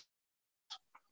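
Choppy call audio: a brief clipped fragment cuts off into about half a second of dead silence, then two short, garbled bursts of sound return abruptly, as if the connection is dropping out.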